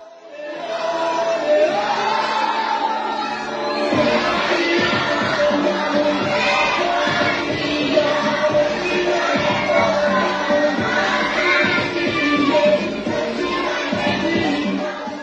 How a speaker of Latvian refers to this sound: video, kur bērni ir bumbu patvērtnē, un е, tur valda pamatīga kņada, skan skaļa mūzika.